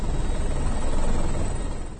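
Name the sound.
helicopter rotor noise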